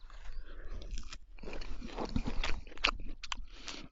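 Biting into food followed by several seconds of wet, crunchy chewing, with irregular bursts of crunching and smacking mouth sounds, fairly loud, with no talking.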